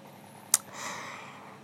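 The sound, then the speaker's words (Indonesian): A quiet, steady whoosh of a small electric fan and an air conditioner set to 19 degrees running in hot Semarang, broken once by a sharp click and followed by a soft swell of airflow, with no one talking. “Hari ini mungkin yang kedengeran suara kipas angin sama AC sama aku yang mau nyambat.”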